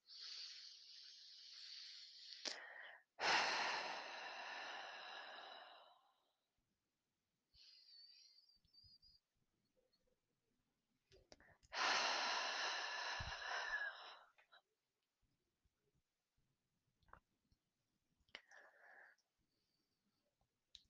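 Slow, deep breaths in and out, airy inhales followed by long, louder exhales, repeated a couple of times with quiet pauses between and softer breaths trailing off.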